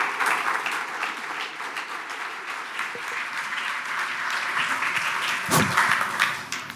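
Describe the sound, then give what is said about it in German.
Steady applause from an audience, a dense wash of many hands clapping at a fairly loud level throughout, with a slightly stronger burst near the end and no speech. “Applaus”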